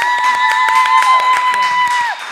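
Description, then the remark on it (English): A crowd claps and cheers loudly, with rapid, uneven handclaps and a steady high whistle-like tone held over them until it drops away near the end. “That's the crowd goes wild.”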